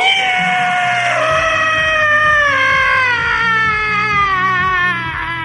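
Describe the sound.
A young man at a bar imitates a pig for a friend with one long, loud, high squeal that slowly slides downward in pitch over about five seconds, backed by a faint rhythmic low pulsing.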